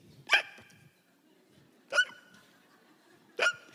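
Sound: voice imitating a hiccup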